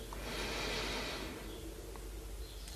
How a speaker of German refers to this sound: Wir nehmen einen dritten Atemzug und atmen ein.